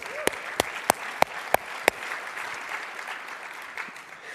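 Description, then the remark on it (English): Audience applause: a few sharp, evenly spaced claps ring out first, then blend into a steady, moderate wash of many hands clapping that carries on without any voices, applauding news that seven unengaged people groups started to follow Jesus this year. “You can clap for that because now they have a representation around the throne.”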